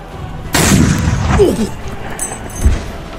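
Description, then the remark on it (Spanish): A loud rifle shot bursts out during a naval battle, followed by a sustained, rumbling roar of battle noise. A second, sharper shot cracks near the end as the din fades. “Cayó herido en el pecho por un disparo de fusil.”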